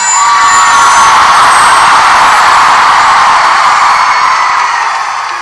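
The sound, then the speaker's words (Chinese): A packed concert crowd screams loudly and continuously, a dense, high-pitched roar of many voices with no pauses, holding steady for several seconds before easing slightly at the end. “把你们的嗓子叫破，给我听听看。”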